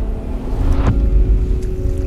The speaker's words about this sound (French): Le 26 juin 1914, à 6 heures du soir, les derniers habitants de Clipperton voient s'éloigner le Cleveland. Ce bateau était leur dernière chance d'échapper à la tragédie qui les attend.